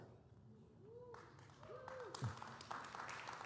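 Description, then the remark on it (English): An audience breaks into clapping early in a speaker's story about being a father of four, starting softly and swelling after a second into a dense, steady patter of many hands, with a few murmuring voices mixed in. “Oh, you guys already clapping?”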